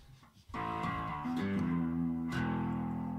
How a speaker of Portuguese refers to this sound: Aí eu tenho um, um overdrive aqui.